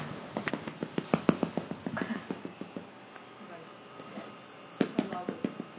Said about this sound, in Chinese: 这是逗猫棒的声音。